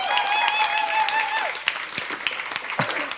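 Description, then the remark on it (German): An audience bursts into steady applause, a dense patter of many hands clapping, while a sustained whistle-like tone rings over the first second and a half before fading. “Applaus, Applaus wert.”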